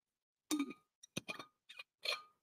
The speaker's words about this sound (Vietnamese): uống miếng nước cái nữa uống miếng nước cho thanh giọng để còn nói tiếp